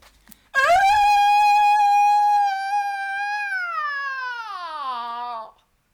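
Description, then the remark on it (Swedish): A single high falsetto scream imitating a metal singer: one loud, sustained, piercing wail of about five seconds that holds steady, then slides gradually down in pitch before cutting off. “Ska jag försöka gå i falsettskrik?”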